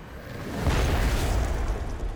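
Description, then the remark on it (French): A single deep, heavy boom from a fog cannon erupts and rumbles on for a couple of seconds, loud and low-pitched with a rough, roaring tail. “Ben oui, encore une fois avec le canon à brume. Il s'est fait arracher un bras, puis une partie de la mâchoire.”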